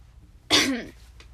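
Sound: throat clearing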